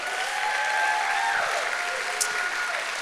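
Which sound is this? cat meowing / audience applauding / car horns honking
audience applauding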